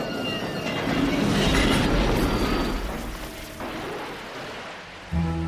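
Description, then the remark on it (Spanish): A train rumbles steadily along the tracks, loud, with a heavy low roar, faint metallic squeals from the wheels, and a sudden thump near the end. “En 1962, el tren en el que viajaba hacia Dubrovnik se descarriló sobre un puente y cayó a un lago.”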